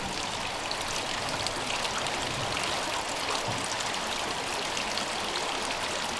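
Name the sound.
river water flowing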